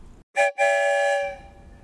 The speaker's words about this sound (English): It goes where it wants to, and sometimes we can even ask the story train questions. One whistle for yes, two whistles for no.